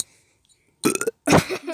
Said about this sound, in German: Mein Vater hat gesagt, wir sollen weniger ans Mikro rülpsen.